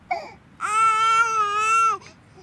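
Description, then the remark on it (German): A baby lets out a short whimper, then a single loud, sustained wail that holds steady for over a second before cutting off, clear with no talking. “Ich sitze einfach nur auf dieser Bank, behalte das Baby im Auge.”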